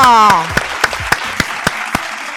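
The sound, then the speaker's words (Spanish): A brief voice at the start gives way to steady, evenly spaced clapping, about eight sharp claps over a soft background hiss, applause for the sponsor Lavadero de Mamá. “quiero un fuerte aplauso para Lavadero de Mamá. Fuerte el aplauso.”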